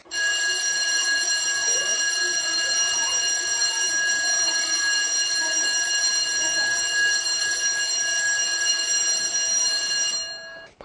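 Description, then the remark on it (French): A loud electric school bell rings continuously for about eleven seconds, a steady metallic clang, on arrival at school, with a faint bustle of children entering the classroom underneath. “Arrivé à l'école, sonnerie et bruit d'enfants qui entrent en classe.”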